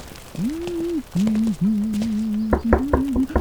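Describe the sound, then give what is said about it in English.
A steady, wavering hum-like tone carries through, and toward the end a quick run of about five sharp knocks on the door of a house in the rain sounds fairly loud over it. “Oh, the door.”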